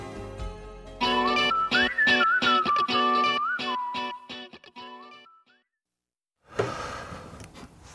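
A pop song plays loudly on a radio music programme as the day's first song, a bright whistled melody gliding over a punchy, rhythmic beat. It cuts off abruptly, and after a second of silence a rough, noisy burst begins.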